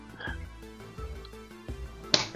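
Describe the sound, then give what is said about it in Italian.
A single sharp slap of a hand swatting a mosquito, loud and abrupt near the end, over a low steady hum and faint croaking background. “Puttana, l'ho preso. Zanzara. Questa è una zanzara, ecco.”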